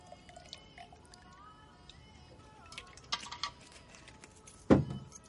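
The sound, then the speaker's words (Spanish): An alcoholic drink is poured into a small hip flask in a kitchen: a faint, uneven trickle with light splashes, followed by a sharper clink of glass or metal near the end. No one speaks. “Kiara vierte bebida alcohólica en una petaca.”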